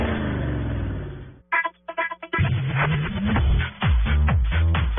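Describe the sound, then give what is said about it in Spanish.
A loud engine roars and revs hard, its pitch climbing in repeated surges, broken briefly by a short choppy pause before the roaring resumes. “en autos y motos de Blue Radio. Voces y rugido.”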